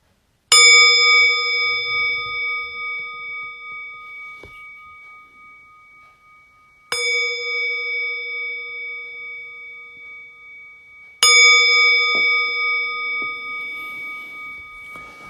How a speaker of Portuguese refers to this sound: no segundo sino, depois levanta no terceiro também não é obrigatório, é mais um ritual. Como eu disse, a gente cria rituais para que esses rituais criem uma ambiência, um cenário onde a gente mais facilmente possa se engajar na prática.